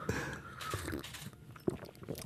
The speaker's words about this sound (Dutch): Ik ga eens proeven. Hè. Ja. je mag slurpen, hè? Ah, dat mag. Ja, je mag. Ik wil je horen slurpen.